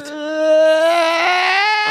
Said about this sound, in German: Ich habe jetzt gedacht, sie weinen, weil es so schön. Ja, es war ja auch. Es aber, war ja auch zu weinen.